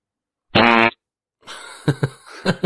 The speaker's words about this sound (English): This fart is called out gas, right?